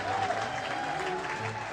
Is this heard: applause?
yes